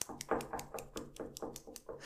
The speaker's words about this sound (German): Dafür können wir ganz kurz klatschen.